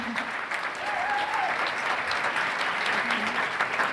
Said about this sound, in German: Einen Hallo. kräftigen Applaus an dich.